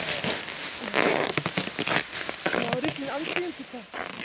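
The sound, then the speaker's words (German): Crisp snipping and crackling of scissors cutting through balloon material while patching a torn balloon during a performance, a rapid run of short rasping cuts with a few rubbery squeaks mixed in. “Warte, ich nehme die Schere.”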